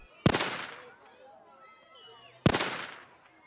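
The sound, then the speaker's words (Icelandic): Two loud, sharp rifle shots crack out about two seconds apart, fired by a 16-year-old girl from a window of her home toward a school across the street, each followed by a short echoing tail, with only a faint background hum between them. “Hún let skotin dinja hvert á fætur öðru.”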